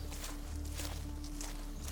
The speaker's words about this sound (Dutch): we lopen over de lege camping naar het pad aan het moeras.